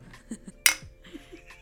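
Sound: glasses clinking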